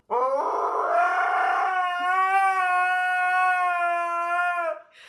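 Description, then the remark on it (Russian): A person imitates a husky sitting on a sofa howling: one long, loud, drawn-out howl that rises at the start, then holds a steady, nasal tone for several seconds before breaking off. No other sounds. “Ну, знаешь же, э, Хаски, романтичный вечер, включая любимую музыку, и он мне поет, а потом камеру переводят с э, красивого стола со свечами, да, на Хаски, который сидит на диване и такой...”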